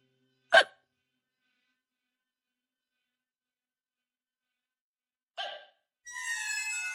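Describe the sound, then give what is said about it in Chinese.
Two sharp, loud hiccups separated by about five seconds of silence; the second is followed by a sustained, higher-pitched tonal sound running to the end. “这声音不是人语，不是夜半歌声，它很有节奏，每个音节都重重的，像是一颗颗子弹，准确的击中伯尼那颗很敏感的心脏。”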